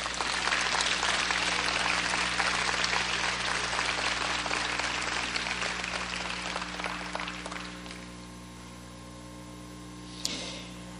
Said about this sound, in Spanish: Un aplauso.